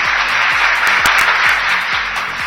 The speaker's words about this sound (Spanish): Ay, qué bonita foto. A ver, aplausos, aplausos.